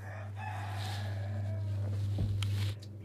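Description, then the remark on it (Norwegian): High, thin peeping from several newly hatched chicks in an egg incubator, overlapping calls, over a steady low mechanical hum that cuts off near the end. “Så jeg har rett og slett eh, heiv en del egg i maskinen her for 17-18 dager siden, og det har begynt å klekke.”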